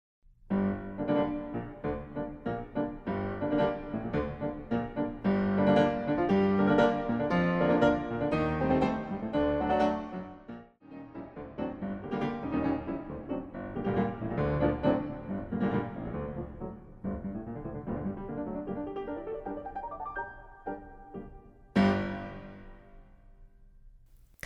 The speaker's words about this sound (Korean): 그래서 사실 워낙 옛날에 녹음된 거다 보니 음질은 많이 안 좋지만 꼭 한번 들려드리고 싶어서 라흐마니노프가 직접 연주한 라흐마니노프의 프렐류드 5번 듣고 오시겠습니다.